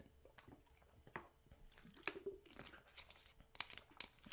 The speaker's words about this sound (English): um, I'm gonna be back. I gotta take a little water break real quick. Give me like 15 seconds.